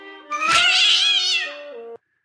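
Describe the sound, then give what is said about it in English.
A single drawn-out, wailing cartoon cat yowl, loud, rising into a warbling caterwaul before cutting off abruptly after about two seconds, with no talking. “That's the worst cat of all!”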